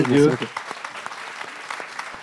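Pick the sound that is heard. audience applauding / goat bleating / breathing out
audience applauding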